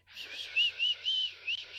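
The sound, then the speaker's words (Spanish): A person gives a breathy catcall whistle at someone walking in the street, a few short airy pitched notes strung together over about two seconds, moderately loud, with no talking. “te chifla y te hace ¡ay, qué bonita!”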